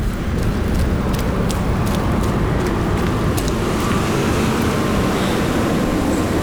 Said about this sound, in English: There is already a tram waiting for me to continue my journey back. so I'm trying to get in